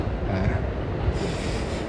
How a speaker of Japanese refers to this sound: 今電車が右手に通っておりましてあガタンゴトンガタンゴトンとあなっておりまして